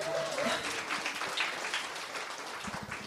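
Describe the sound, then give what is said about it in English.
A crowd claps steadily in a dense, continuous patter of applause, with a few cheers or whoops rising briefly above it, moderately loud throughout. “Round of applause for”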